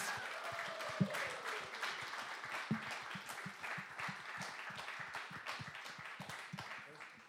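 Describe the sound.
A crowd applauds steadily, many hands clapping in a dense, sustained patter that fills the room at a moderate level, with a few louder individual claps and faint voices mixed in.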